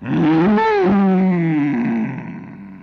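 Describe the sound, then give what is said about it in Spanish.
A deep, loud bellow from a bull, one long sustained call lasting about two seconds, rough and harmonic, then trailing off into a quieter rumble. “Vino un toro de aspecto temible que hubiera hecho temblar al mismo San Miguel Arcángel”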